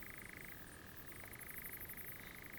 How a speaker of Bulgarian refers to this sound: Да, не знам това, което се чува, какво точно точно става. Еми, мисля, че е дървесна жаба или някаква птица.